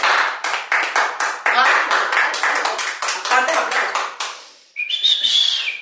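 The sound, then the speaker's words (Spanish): Steady applause with sharp claps coming in a quick, even rhythm for about four seconds, then a brief pause and a high, shrill whistle over the last moments, applauding Colombia's football team after it beat Venezuela. “Un aplauso para los colombianos porque tienen buen fútbol.”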